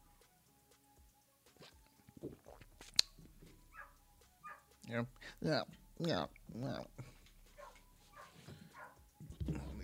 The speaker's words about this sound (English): Uh, I keep hearing the, the, the stupid puppies yipping out there.